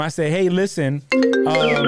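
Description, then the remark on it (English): A phone ringtone goes off, its steady electronic tones sounding alongside a man talking, fairly loud. “Excuse my phone. I'm sorry for that.”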